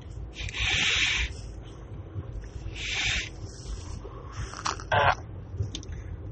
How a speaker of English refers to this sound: So, oh, good smoke. And no, guys, this is not a cigarette. It's a, it's a vape, as you can tell from the noise.